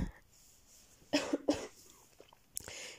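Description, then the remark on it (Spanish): A sick woman, recording from bed in the morning, coughs: two harsh coughs burst out in quick succession, followed by a brief throaty rasp and a softer breathy exhale; no talking, just the fairly loud coughing. “y perdón si a lo largo del episodio escuchan pausas muy largas, mi tos o mi voz un poco entrecortada.”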